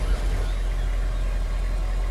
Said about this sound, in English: Rolling now in front of the beast, the car comes to a halt at the door of the building, bumping against it.